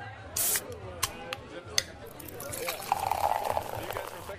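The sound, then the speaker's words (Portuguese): A short hiss and a few clinks, then the first round of drinks glugs steadily into a glass, its pitch rising as the glass fills. Faint background murmur underneath. “Aí, garçom, amigo, chapa, parceiro, Traz a primeira aí pra gente, por favor.”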